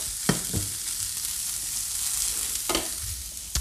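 Tofu nuggets frying in oil in a pan, a dense steady hiss throughout with a couple of clunks and scrapes as the pan is swirled. No talking.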